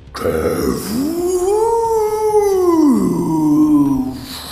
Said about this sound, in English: the freed snow ghosts fly up as Dogzilla breathes a frosty breath into the clouds, howling and aiming its snout with purpose as it seems to build a massive ship of ice.